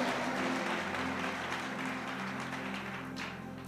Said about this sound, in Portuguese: Vamos dar uma salva de palmas para o Senhor.